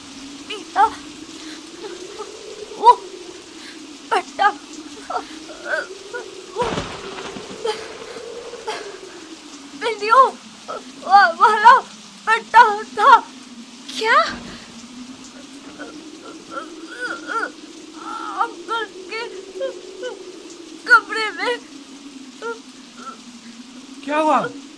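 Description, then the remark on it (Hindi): Heavy rain pours steadily against a window on a stormy night with strong wind, a dense hiss under a low wavering drone, with brief voice-like sounds rising over it now and then. “मुझे लगता है मैंने वो आवाजें सुनी लेकिन बारिश की आवाज और डर के कारण हो सकता है मैं गलत हूं”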